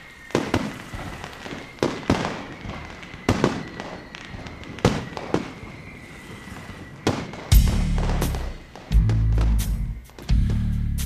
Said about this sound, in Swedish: Men istället förvandlade många även i år havsluften till lortluft och friden till dunder och brak. Allt med hjälp av fyrverkerier.